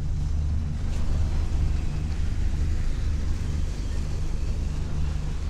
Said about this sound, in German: Unterwegs auf dem Brahmaputra auf dem Fluss, der über 70 Mal mehr Wasser führt als der Rhein bei Basel. Die gewaltige Kraft des Flusses lässt das Boot stromaufwärts nur im Schneckentempo vorankommen.